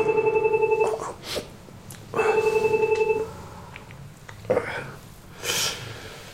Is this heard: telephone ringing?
yes